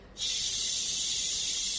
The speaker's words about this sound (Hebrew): אנחנו עושות עכשיו את התרגילי נשימה.